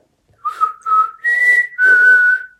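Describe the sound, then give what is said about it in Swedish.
A person whistles a loud call of four sustained notes, rising in the middle then settling slightly lower: a father's whistle for calling his children as if they were dogs. “När jag var liten, då hade min pappa så här visselljud för han visslade som att vi var hundar.”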